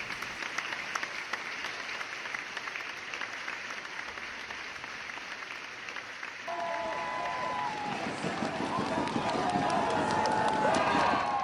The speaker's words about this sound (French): En tout cas, Crazy était riche en émotions et a visiblement touché le public français en plein cœur. Je vous laisse d'ailleurs avec les applaudissements que j'ai enregistrés à la fin de la projection.